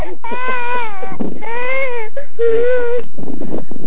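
A young child cries loudly in three long, wavering wails separated by short gasping breaths, with nothing else heard.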